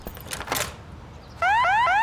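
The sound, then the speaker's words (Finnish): Some soft rustling, then a newly installed home security alarm system suddenly blares, rapidly repeating a rising electronic whoop tone, loud and piercing, continuing to the end. “No voi vittu, tää uusi hälytysjärjestelmä näköjään lähti käyntiin.”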